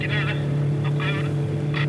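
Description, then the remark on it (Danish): A motorboat engine drones steadily and fairly loudly on open water among large floating icebergs on a rainy day, heading out into the Ilulissat Icefjord, with a low constant rumble and faint voice-like bursts breaking through now and then. “På en af de sjældne regnværsdage, der sidder jeg i en motorbåd, der i forhold til de store isbjerge, som flyder rundt i vandet, synes umådeligt lille.”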